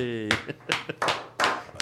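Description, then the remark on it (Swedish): Thin, scattered applause at a Swedish football gala after the year's league top scorer, Alexander Jeremejeff, is announced: a handful of sharp, uneven hand claps spread over about two seconds, following a brief voiced sound at the start. “Ja, men du har ju applåderna.”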